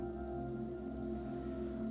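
Steady rain pattering on a surface, a soft continuous wash of drops with no breaks, heard alone under a low, even background hum.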